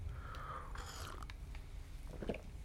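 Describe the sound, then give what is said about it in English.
Quiet mouth sounds of someone sipping coffee, a couple of soft slurps and swallows over a low background hum, with no talking. “hang on, more coffee.”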